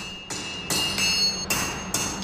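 Hammer blows ring out on a red-hot steel bar being shaped at a swordsmith's forge, the forging stage of sword making: four sharp metallic strikes at a steady rhythm, fairly loud, each leaving a bright ringing tone.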